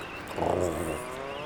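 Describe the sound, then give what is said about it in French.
An Atlantic puffin gives a hoarse, low growling call, a single drawn-out rasp that swells in the middle and fades, sounding almost like a revving engine. No one speaks. “C'est pas un beau cri, c'est rauque.”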